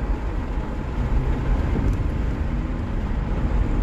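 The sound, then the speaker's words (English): Steady, continuous rumble of a car interior while driving, a dense low road-and-engine drone holding at an even level throughout, with no voices. “You are in the car”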